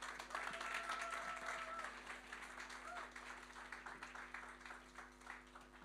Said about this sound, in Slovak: Dáme mu jeden veľký potlesk.